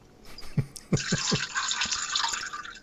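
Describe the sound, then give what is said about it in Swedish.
A few quick drips lead into a steady, hissing stream of running water, fairly loud, continuing without pause to the end with no voices. “Och spola lite, lite mer”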